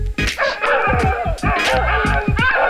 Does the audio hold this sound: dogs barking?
yes